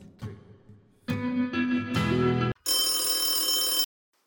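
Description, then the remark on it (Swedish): A telephone rings before an answering machine picks up: several bursts of a bright harmonic electronic trill with short gaps between rings, ending with a longer, higher-pitched tone before silence. “Vi kan tyvärr inte svara just nu, men vänligen lämna ett meddelande efter tonen.”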